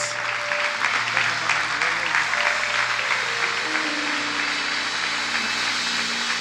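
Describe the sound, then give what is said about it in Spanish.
An audience applauds as an offering of thanks to Jesus, a dense wash of many hands clapping at an even loudness for several seconds, with a low sustained hum running underneath. “Y te agradecemos con esta ofrenda de palmas.”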